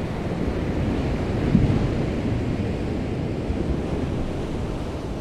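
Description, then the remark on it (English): Ocean waves lap steadily on a beach, a continuous low, rushing wash with a slight swell partway through and a faint windy hiss. No one speaks. “The lapping of the ocean waves soothed me as I lay my head on the cool wave, hard sand.”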